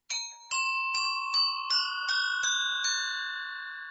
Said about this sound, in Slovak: Keby sme si teraz povedali príbeh zvonca, alebo možno takej zvonkohry, lebo aj také tu môžeme u vás nájsť a počuť